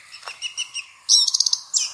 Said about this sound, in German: Oh, ein Vogel hier. Oh. glaube, er macht einen Liebestanz. Auf jeden Fall büschelt er sich. Die Schwanzfedern werden ganz groß.